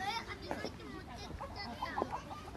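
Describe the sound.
High-pitched children's voices chatter and call out in a steady, overlapping babble, fairly faint, as kids play together outdoors in a park.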